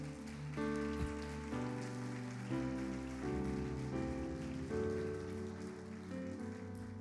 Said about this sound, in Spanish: Dale un aplauso a Jesús, amada casa.